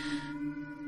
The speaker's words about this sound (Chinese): 对不起，我的猫在不知道为什么一直在狂叫。